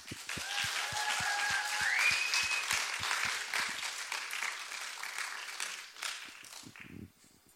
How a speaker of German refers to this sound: Begrüßt sie mit mir mit einem herzlichen Applaus